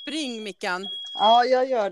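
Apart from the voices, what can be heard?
smoke alarm beeping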